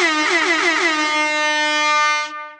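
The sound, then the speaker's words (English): A loud, sustained air horn blast with a bright, brassy tone that wavers slightly at the start, holds steady for over two seconds, then cuts off abruptly. “Cue the air horn.”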